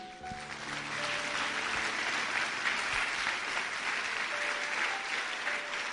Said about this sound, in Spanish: Le damos un aplauso a Jesús.